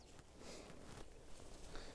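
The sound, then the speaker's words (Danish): Quiet footsteps outdoors as someone coming home from a walk goes in through a garden gate onto a fenced wooded property, about five soft steps at an unhurried, steady pace over faint background ambience, with no one talking. “Jeg går ind af havelågen nu.”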